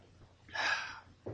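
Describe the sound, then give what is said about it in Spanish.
A quick sip of water ends in a breathy, airy gasp of relief lasting about half a second. A brief soft vocal sound follows right after. “Qué lindo que tomar agua nuevamente, ¿eh?”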